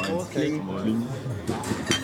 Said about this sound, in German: Da, da, da, nochmal da anstoßen. So, haben alle.